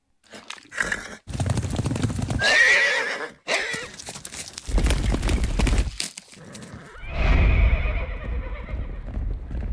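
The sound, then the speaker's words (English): Horse whinnies ring out over about ten seconds, the first cutting off abruptly and a longer one sliding down in pitch near the end, with hooves clip-clopping between the calls, loud. “Horse noises, please,”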